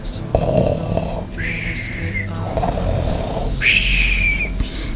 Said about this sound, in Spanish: Luego, sus padres monstruos irían a su habitación y dormirían con aquellos ronquidos de monstruo.